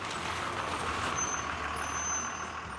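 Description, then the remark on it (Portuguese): A large bus, empty of passengers, rumbles slowly as it turns a corner, a steady engine drone with a broad hiss of air brakes and faint high squeals, with no one talking. “O ônibus se movia lentamente.”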